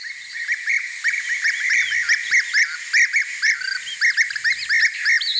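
A colourful bird with a blue belly calls over and over in rapid, squeaky, whistled notes, fairly loud, the bright chirps tumbling into one another without pause and with no voices.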